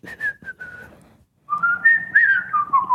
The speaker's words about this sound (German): Gibt es da Musik? Können wir die nicht selbst da noch? Also, wir können ja noch mal pfeifen, so, weißt du?